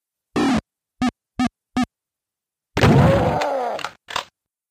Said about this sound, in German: ganz kurzes Soundsample, aber das verdeutlicht auch nochmal sehr gut den Unterschied zwischen der PC-Speaker-Technik und dann der Soundblaster. Das Geräusch, was wir da hören, das kennt wohl jeder, der dieses Spiel kennt, das ist die Super Shotgun.